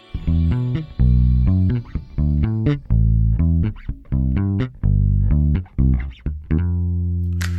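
A music track from a 2021 album plays on its own, with steady harmonic chords in choppy, rhythmic bursts and punchy low-end hits, loud with no voices.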